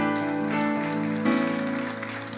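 A church audience applauds for the Lord, steadily, a dense crackle of clapping with no clear gaps, while sustained keyboard-like tones hold underneath; the applause swells slightly partway through.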